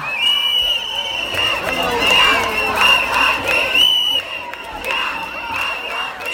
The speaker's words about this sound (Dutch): En het, het, was eigenlijk enorm druk, dus je kon bijna nergens meer lopen. En, en ik begon te filmen omdat er echt een soort feestje ontstond. Vrouwen begonnen samen te mm. dansen, liedjes te zingen, arm in arm.